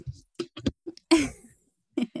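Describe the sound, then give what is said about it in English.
A child breathes heavily and snorts right into the microphone, loud, surrounded by short grunting, voice-like bursts that give the whole thing a piggish, huffing character. “Attacking my mic and breathing like a crazy pig.”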